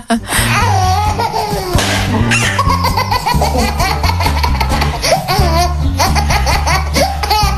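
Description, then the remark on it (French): Recorded babies and young children laugh continuously and loudly, played on a radio station in Lyon, France: overlapping giggles and belly laughs in bursts, with high squealing peaks and a warm, playful tone throughout. “On est la seule radio à Lyon à vous passer que des rires d'enfants, de bébés, hein.”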